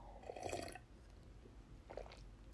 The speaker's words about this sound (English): I actually have to take a sip of my coffee. My mouth is like getting extra dry here. One second.